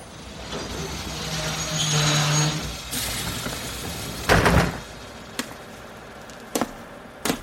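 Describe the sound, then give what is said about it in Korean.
A train's steady rumble and low drone wind down and stop, then the train door opens with a short, loud mechanical whoosh as the only passenger gets off. A few sharp clicks follow in the quiet. “문이 열리고 유일한 승객인 내가 내린다.”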